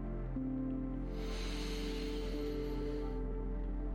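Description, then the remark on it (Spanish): A slow, deep inhalation during a guided breathing exercise, a soft airy hiss swelling over about two seconds and then fading, over a steady low musical drone. “Respira conmigo. Inhala profundamente.”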